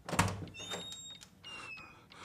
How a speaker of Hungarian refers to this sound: Felkelt, és óvatosan az ajtóhoz ment. Neki tapasztotta a fülét, és hallgatódzott. Semmi. Aztán erőt vett magán, és kinyitotta az ajtót.